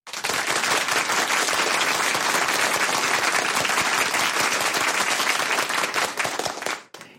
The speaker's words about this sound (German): dafür haben sie sich einen kräftigen Applaus verdient.